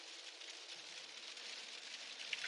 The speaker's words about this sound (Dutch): Ik ga hem lekker eh, afsluiten, want ik merk eh, dat ik mezelf amper kan horen met die harde regen op de vooruit.